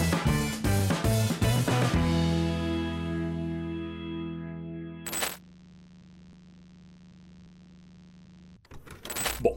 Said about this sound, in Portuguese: Então vai rodar a vinheta e eu já volto com esse conteúdo que eu tenho certeza que vai ser muito bom para ti.